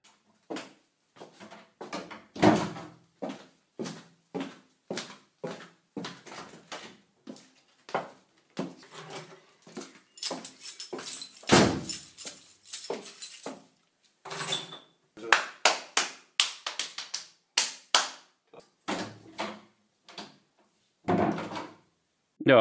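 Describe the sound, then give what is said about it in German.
Sharp knocks and bangs sound in a hallway with Basotect acoustic foam panels on the ceiling, dozens of short hits in irregular bursts, some loud, with a dry, quickly dying echo. A voice murmurs faintly underneath at times. “Und jetzt die zweite Aufnahme mit den Basotec-Platten an der Decke.”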